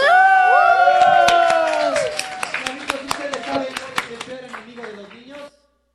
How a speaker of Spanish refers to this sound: ¡Eh, aplausos!